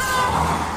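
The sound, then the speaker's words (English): Steady, loud traffic rumble with a broad engine drone and faint tonal whine, busy street traffic heard from inside a car, continuous with no talking. “Probably would have been better if I wasn't sitting in a car in a busy street.”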